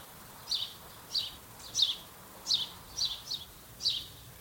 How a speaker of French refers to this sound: Je vois un cerisier. Il y a plusieurs arbres fruitiers. Et dans ces arbres, vous les entendez, il y a plein d'oiseaux.